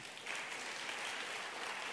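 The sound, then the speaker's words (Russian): Steady audience applause at a church service, a dense wash of many hands clapping that swells in after a brief quieter start and holds at a fairly loud, even level throughout, with no voices over it. “Дайте им еще раз хорошие аплодисменты.”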